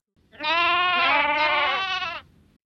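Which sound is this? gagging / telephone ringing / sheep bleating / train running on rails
sheep bleating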